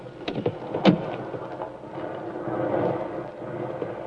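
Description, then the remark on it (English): Heavy rain pours in a steady, dense hiss four miles from the front line, with a couple of sharp cracks early on and low thunder rumbling underneath throughout. “Good Lord, it's pelting with rain.”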